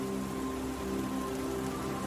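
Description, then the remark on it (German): Steady rain pours down in stormy weather, a dense, even hiss of drops that holds at a constant level throughout, with a faint low hum beneath and no voices. “Nur der Leuchtturm an der Küste schenkt uns sein Licht, damit wir den richtigen Weg inmitten des stürmischen Wetters finden.”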